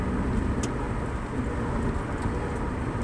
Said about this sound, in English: I uh, well, at least for the for that one minute, beginning of this podcast, there was no noise, but now there is because I'm in the vehicle.